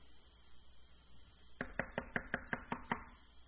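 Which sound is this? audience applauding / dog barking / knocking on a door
knocking on a door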